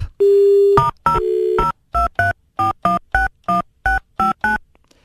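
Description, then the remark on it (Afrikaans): A dial tone hums briefly, then a rapid run of about ten short touch-tone beeps as a number is keyed in, clear with no talking. “ek ek gaan weer vir ek gaan dis nou die laaste keer wat ek gaan bel.”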